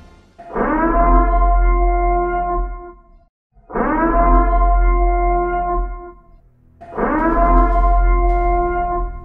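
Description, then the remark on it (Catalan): A loud sound cue of three identical, blaring horn-like tones, each lasting about three seconds with a brief pause between, rich and buzzy over a deep low rumble, with no talking. “És un indicatiu sonor que a partir d'ara trobareu en els programes”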